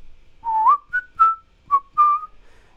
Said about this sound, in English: that's a synthesizer noise that's going on there. But cleverly, I think it creates that sort of whistling sound by having high end in just the right places in each of these notes.